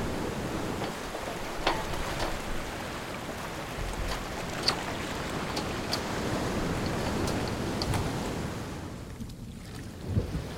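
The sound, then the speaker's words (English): Ocean waves roll and wash steadily, a broad continuous surf with occasional sharper splashes and a breezy, wind-buffeted texture, fairly loud throughout. “and an ocean tumbled by with a private boat from us.”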